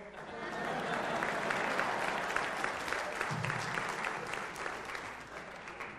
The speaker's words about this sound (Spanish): Un aplauso para mi prima, por favor.